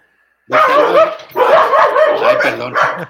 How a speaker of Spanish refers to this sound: eso que están viendo, oyendo es mis, son mis perros, ¿eh?